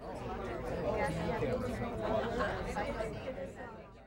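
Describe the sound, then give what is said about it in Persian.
A steady murmur of many overlapping voices of surrounding people talking, indistinct background chatter at moderate volume throughout, with no single speaker standing out. “سر و صداهایی مثل صدای صحبت کردن اطرافیان،”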